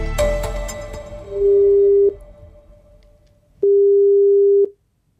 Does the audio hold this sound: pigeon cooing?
no